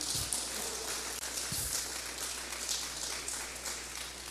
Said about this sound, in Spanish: Oh, qué glorioso Espíritu Santo tenemos. ¿Alguien le puede una ofrenda de palmas al Espíritu Santo de Dios, hermanos, en esta mañana?